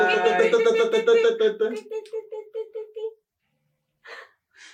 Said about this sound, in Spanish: Claro, mira, este está vibrando todo el tiempo. Si le cambias, vibra más, intenso. Más intenso